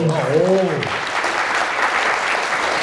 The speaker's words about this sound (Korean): 어, 박수 한번. 오. 오.